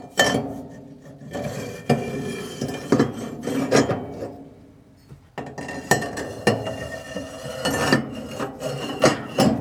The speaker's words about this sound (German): es war äh, Rühr, Rührwerk in Maschine einlegen war das, glaube ich. Genau, das, das Rührwerk